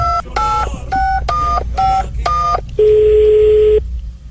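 A phone number is dialed on a keypad: six quick, evenly spaced two-tone beeps, then a single longer, lower steady tone as the line connects. No one speaks.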